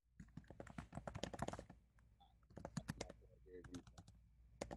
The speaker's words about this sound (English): You gotta mute your mic you're typing. Actually, don't even type right now. type later.